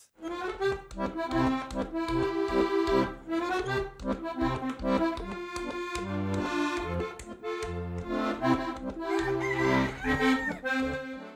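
A rooster sound effect: a rooster crows loudly, several drawn-out calls repeating over about eleven seconds against a dense, busy background with no talking.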